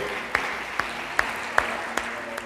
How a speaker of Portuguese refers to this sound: Aplauda forte a Jesus aí. Aleluia.